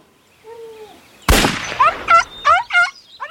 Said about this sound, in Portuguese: Fabiano atira nas patas traseiras de baleia que à beira da morte consegue fugir até os juazeiros.